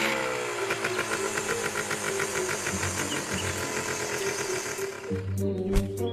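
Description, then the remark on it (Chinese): A chainsaw is left running to make it sound as if trees are still being cut, with a rough, buzzing motor drone and rapid rhythmic chatter, holding constant for about five seconds before the tone shifts and sputters briefly toward the end. No one speaks. “嘿嘿嘿，让锯子生制造我还在砍树的假象”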